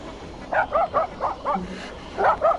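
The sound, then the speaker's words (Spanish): A dog lying on the ground, watchful and wagging its tail, barks in a quick run of about five sharp barks, pauses briefly, then lets out two or three more, clear with no talking. “tomando fuerzas, se acercó en silencio a la puerta del hombre, pero frenó en seco al ver un perro echado en el suelo, ah. en actitud vigilante, meneando la cola.”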